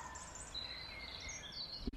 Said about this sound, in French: vous entendrez peut-être euh, derrière moi euh, des petits bruits d'oiseaux qui se Qui... On dit zioziotent Je ne sais pas, bref. Attendez, je vais arrêter de parler pour euh, essayer de capter les bruits d'oiseaux autour de moi.